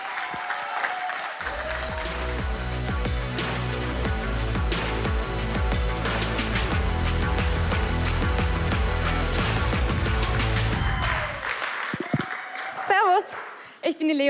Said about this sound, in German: In diesem Sinne, jetzt dürft ihr schon mal einen großen Applaus geben für das, was passieren wird.